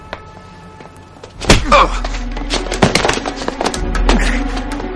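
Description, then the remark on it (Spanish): After a quiet moment, a sudden heavy thump of a punch lands, followed by a quick, uneven run of hard footfalls and scuffling as the man who threw the punch flees, continuing to the end. “Le da un puñetazo y huye.”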